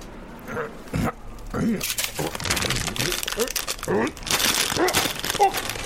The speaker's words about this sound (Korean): 북 소리와 함께 봉투가 찢기며 내용물이 허공으로 솟구쳤다.